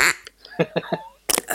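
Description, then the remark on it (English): A reconstructed call of the great auk, the biggest alcid, a bird like a big penguin with a huge beak weighing about five kilograms: three harsh, nasal croaks in quick succession with a drawn-out honking tone, fairly loud, followed by a burst of laughter. “It sounds like this.”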